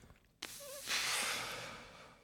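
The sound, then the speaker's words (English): A voice imitates a giraffe hum: a short, wavering hummed tone, then a long breathy exhale like a sigh or snort. It is moderately loud, with no speech. “what would be your best guess of a giraffe hum? How would that sound?”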